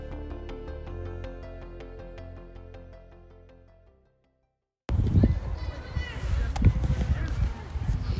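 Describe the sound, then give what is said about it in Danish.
A short tune fades out into a brief silence, then open outdoor ambience of young people playing football on a pitch in front of Kaiser Arena in Horsens, Denmark, while a first-division team warms up alongside: scattered shouts, running footsteps and occasional ball thumps across a wide pitch. “Det I kan høre lige nu, det er nogle unge mennesker, som spiller fodbold på en af banerne ude foran Kaiser Arena.”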